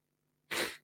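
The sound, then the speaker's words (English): A single sudden sneeze from a person with a cold bursts out, a sharp, breathy explosion of noise that fades quickly, with near silence before it and no talking. “I'm going to sneeze again.”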